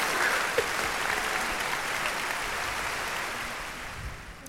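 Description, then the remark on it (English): A crowd applause sound effect played after an instrumental song, with dense clapping that holds an even loudness for several seconds before tapering slightly at the end. No one speaks over it. “Despite being called a one-trick pony, the crowd is with you.”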